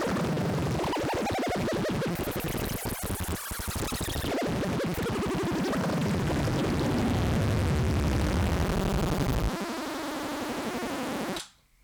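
A slowly descending barber pole effect: dense, loud layered tones that keep gliding downward in an endless spiral, with no speech, before cutting off abruptly at the end.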